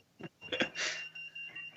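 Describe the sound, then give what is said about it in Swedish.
A breathalyzer's thin, high electronic tone holds steadily throughout, fairly quiet, while a few short bursts of handling noise or muffled voice come and go around it. “Vad fan är det som piper nu då? Det är Jakobs alkomätare.”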